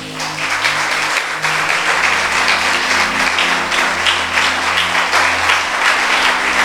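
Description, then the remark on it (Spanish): An audience bursts into loud, sustained applause for God, dense clapping that holds steady throughout, with a low hum of sustained tones underneath. “¿Le puede dar un aplauso a Dios?”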